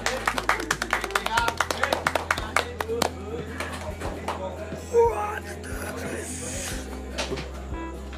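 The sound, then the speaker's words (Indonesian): A burst of quick, sharp hand claps comes rapidly at first, then thins into scattered, irregular claps over a low steady hum, with some murmured voices mixed in. “see you di podcast selanjutnya terima kasih jangan lupa follow di rumah podcast selanjutnya dadah bye bye tepuk tangan”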